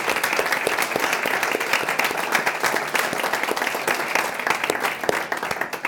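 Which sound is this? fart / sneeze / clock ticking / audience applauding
audience applauding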